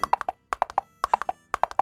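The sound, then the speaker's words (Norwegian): Crisp clip-clop knocks in quick groups of four, repeating steadily like a small horse galloping on a hard surface, clear with no voices. “Oh, en liten hest som galopperer.”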